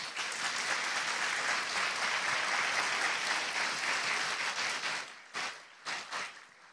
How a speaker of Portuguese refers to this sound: Eu posso ah, ah, ouvir aqui o aplauso ao Senhor Jesus.